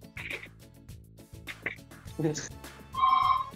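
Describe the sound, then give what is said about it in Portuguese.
A telephone starts ringing near the end, a steady electronic ringtone rising over the background, while people talk throughout. “Ó, tá tocando o telefone aí.”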